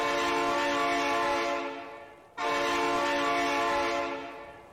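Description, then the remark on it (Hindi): A loud train horn blares in two long blasts, each sustained for about two seconds with a brief break between them, rich and harmonic, with no voices, from a train slowly approaching across a railway bridge over a river. “track पर उसके कदम लड़खड़ाने लगे तभी जोर का हॉर्न बजा”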